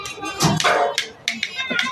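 A single dog barks several times in quick, uneven bursts, sharp, the short yappy barks following one another over a couple of seconds.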